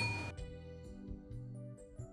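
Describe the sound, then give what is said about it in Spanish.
A quick bright clink of wine glasses touching in a toast, one short ringing chime at the start, followed by sustained musical tones with no talking. “Hacemos nuestras copas, despidámonos. Salud.”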